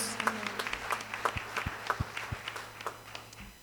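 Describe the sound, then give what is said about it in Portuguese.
A group of people claps together for a few seconds to applaud the Lord, a steady patter of overlapping hand claps that fades slightly toward the end, with no one talking over it. “Você pode aplaudir o Senhor? Aplauda o Senhor.”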